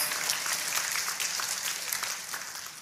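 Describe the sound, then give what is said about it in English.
An audience claps together in a steady round of applause for the tech team that created a video, a dense wash of overlapping hand claps that holds fairly even for about three seconds before easing slightly. “Can we give the tech team that created that video,”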